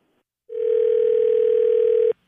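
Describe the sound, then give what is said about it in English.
A steady, continuous telephone dial tone hums at a constant pitch for about a second and a half, then cuts off abruptly as a phone call is placed, clear with no voices. “I'm going to call her now as the manager from the store.”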